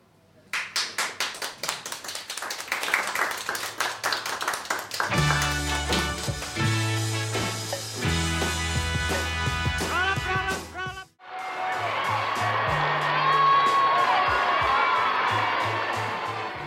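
An audience claps steadily with scattered whoops, and a band plays loud sustained chords underneath for a while. After a brief drop the applause swells into a dense, continuous roar of cheering.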